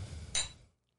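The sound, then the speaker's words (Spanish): A single bright, sharp clink of wine glasses touching in a toast, ringing briefly before fading, over a low background rumble with no one speaking. “No, nosotros siempre empezamos así, con esa eh, ¡Ey! Salud, coño. salud.”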